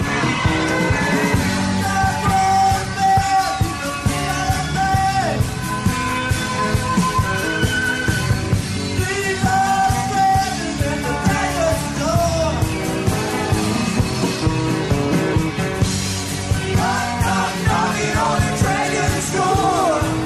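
A recorded rock song plays loudly and steadily throughout, with two men singing together over a full band of guitars and driving drums.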